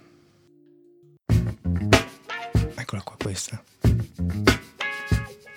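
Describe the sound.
Choppy electric guitar chords from a funk record strike in a tight, syncopated rhythm after a brief quiet start, loud and close, with a man briefly speaking over them.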